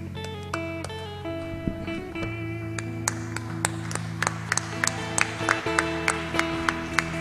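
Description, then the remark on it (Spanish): Scattered clapping from a church audience after a prayer builds over sustained organ-like chords, sharp irregular claps growing denser and louder toward the end, with no one speaking. “No lo dude que el aplauso no es para mí.”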